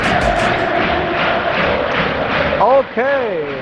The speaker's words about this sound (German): der FC Sevilla verliert das Spiel, aber hier jubeln die Fans.